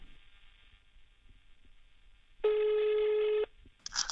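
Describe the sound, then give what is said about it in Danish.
A single loud, steady ringback tone over a phone line lasts about a second, following a faint low hum, as an outgoing call rings to the director of a ski travel company. A brief higher electronic blip follows at the end. “Derfor besluttede jeg mig lige at slå på tråden og høre, hvordan det ser ud på destinationerne, og få et par fif og tricks til skiferien.”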